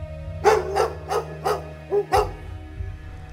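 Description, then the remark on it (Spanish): A family's dog barks six times in quick succession at night, sharp and urgent, over a steady low hum. The barks are loud, with no voices. “Los perros de la familia comenzaban a ladrar, aullando de manera frenética, como si tratasen de advertir algún tipo de peligro”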